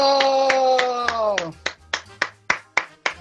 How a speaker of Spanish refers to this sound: ¡Aplaudan mierda!